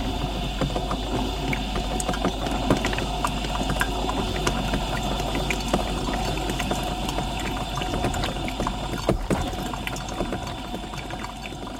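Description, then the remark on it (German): A coffee machine, just descaled, runs steadily, water splashing and trickling cleanly over a low mechanical hum and pump drone, continuous, with no moaning or gurgling and no voices. “So, jetzt plätschert die Kaffeequelle wieder sauber und es ist kein Stöhnen und Röcheln mehr zu hören.”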